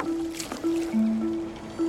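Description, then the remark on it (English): Low, drawn-out creaks and groans of wooden hulls repeat over soft water lapping and splashing as Blackbeard's ship lies alongside the Jane, with no voices. “Except for the lapping of water and the creaking of wooden hulls, all is quiet.”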